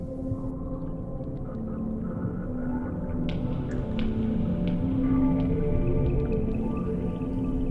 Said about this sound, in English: I just find it cool to think that this is Northland sperm whale culture.